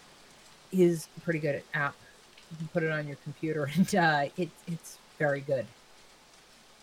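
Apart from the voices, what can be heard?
rainstorm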